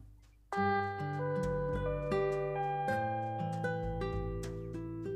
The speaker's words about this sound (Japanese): ということで、このチャイムが鳴ったということで、本音トークコーナー